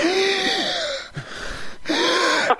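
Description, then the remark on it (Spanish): A voice imitates passionate moaning and panting, mimicking Ninel Conde as heard under the bedsheets on Big Brother, in two drawn-out, breathy vocal bursts separated by a brief pause, fairly loud. “No, tapando la cámara con las sábanas, justamente para que nadie viera la pasión y nomás escuchaba esto de Ninel.”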